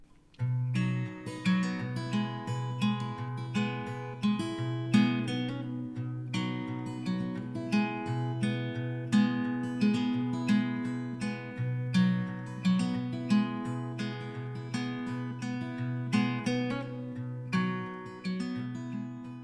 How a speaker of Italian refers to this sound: Sigla.